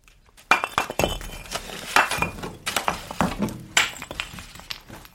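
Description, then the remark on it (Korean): A pickaxe strikes and tamps the earth again and again in the evening, in an uneven rhythm, each blow a sharp, gritty crack with a hint of clinking debris, growing gradually louder, with no voices. “아이, 다 저녁 때 무슨 곡괭이 소리야?”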